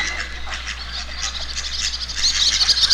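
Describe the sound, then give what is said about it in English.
A chorus of ducks quacks in overlapping bursts, with high bird chirps joining in toward the end and a steady low hum underneath, from an instrumental nature recording from an album. “Because it says ….”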